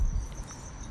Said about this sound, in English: You guys hear the crickets in the background I hear in South Central California, whatever.